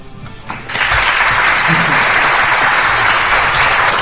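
Applause breaks out after a brief quiet moment, swelling quickly into a steady, dense wash of clapping that holds at full strength until the end.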